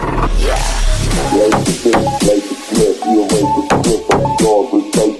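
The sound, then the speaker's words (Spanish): A sports car engine roars loudly at the Porsche museum in Stuttgart, its pitch climbing and dropping in a series of quick revs, with sharp cracks between the surges. “Si te parece, además de escuchar motores, vamos a ver alguno de los coches.”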